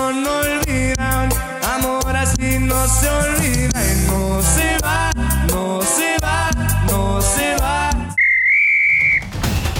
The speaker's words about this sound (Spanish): Ha sonado el pitazo final de este podcast.